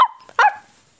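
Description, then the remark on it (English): A small dog, Biscuit, barks twice as it is taken for a walk: a brief, high yip that trails off, then a louder, sharper bark a moment later, with no talking around it. “在 walk dog 之前，我们都要给狗拴上狗链，对吗？”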